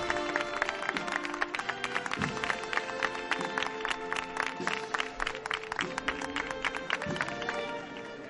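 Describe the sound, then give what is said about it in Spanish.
A crowd in Málaga claps steadily throughout for the paso of the Virgen de la Caridad during a procession, a dense, even patter of many hands at a constant moderate loudness, with sustained musical tones running underneath. “Palmas a la severidad del paso de la Virgen de la Caridad mujeres y hombres de trono bajo.”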